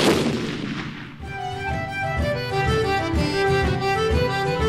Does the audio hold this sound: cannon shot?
yes